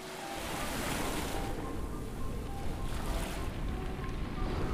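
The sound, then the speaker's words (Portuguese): Steady ocean waves wash and surge as a ship sails over large waves, with a broad continuous rush of water and some wind buffeting, no voices present. “O vovô era um comandante muito bom e eles navegaram tranquilamente sobre as grandes ondas milha após milha, somar e céu, céu e mar, até que finalmente um pontinho apareceu no horizonte.”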